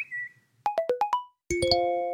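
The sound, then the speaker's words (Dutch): A burst of electronic message notification tones as four messages arrive in a colleagues' group chat and 22 phone screens light up at once: a brief beep, a quick run of five pitched blips, then a bright chime that rings on. The tones are clear, with no talking. “Er komen vier berichten binnen, 22 telefoonschermen lichten tegelijk op.”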